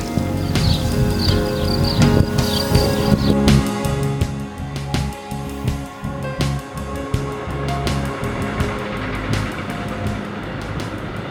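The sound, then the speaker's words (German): Crickets chirp steadily outdoors at a signposted viewpoint by a lattice fence overlooking the Loreley rock, in a rapid, repeating pulse over a low, constant rumble like traffic or wind. No one speaks. “Hör mal, die Grillen.”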